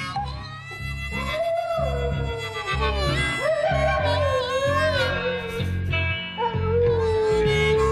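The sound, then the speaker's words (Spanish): A border collie named Simus howls in a studio while a band plays a country blues song. The howl is prominent, with long, wavering, sliding notes rising and falling throughout against steady guitar and rhythm accompaniment. “Mira, una canción country de blues mientras el animal aullaba de fondo.”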